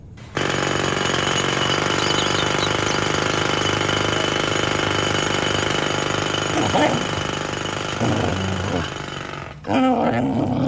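A jackhammer pounds away loudly and continuously in the street, its rapid hammering filling nearly the whole stretch before cutting off abruptly near the end, followed by a brief growl-like sound.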